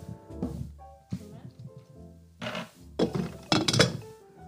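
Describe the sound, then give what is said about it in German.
A home soda maker carbonating water to make a drink: three short, loud, buzzing hisses of gas in quick succession, after a stretch of low mechanical rumbling and thunks. “Oh, das ist mein so Soda. Mein Streamy ist das.”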